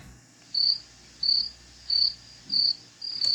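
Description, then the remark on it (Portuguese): A cricket chirps alone in a steady rhythm, five bright, shrill pulses evenly spaced against near silence, like the classic awkward-pause effect, inserted during editing. “Na edição pode colocar o um grilo agora, filho.”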